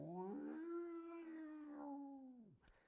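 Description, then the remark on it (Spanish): A long, mournful whale call swells and bends slowly in pitch, rich with overtones, sustained for a few seconds before fading out with a brief click at the end. “Hay gente que escucha sonidos, sonidos del mar o sonidos del bosque, o ballenas.”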